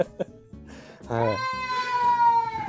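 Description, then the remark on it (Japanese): A cat outside lets out a long, drawn-out meow, rising and then holding a steady wavering tone, preceded by a few soft clicks and shuffling sounds. It sounds clear, with no talking. “ごめんなさいね、今ね、ちょっと外でね、はい、えっと、はい、声聞こえてるかな 鳴き声がそうですね、ちょっとだけ。”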